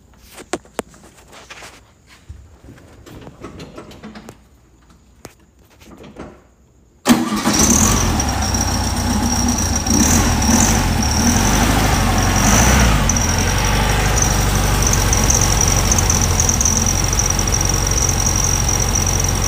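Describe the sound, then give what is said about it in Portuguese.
After several quiet seconds with a few faint clicks, a vintage car engine is started with the key, cranking and catching suddenly, then settling into a loud, steady, rumbling idle, with no talking. “Vou funcionar ele para nós ouvirmos o som.”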